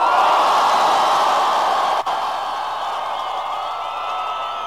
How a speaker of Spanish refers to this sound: Vamos a despedirlo, un grito.